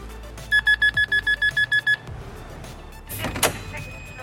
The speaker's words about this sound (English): trying to be witty and erudite on the television is where we ring the bell.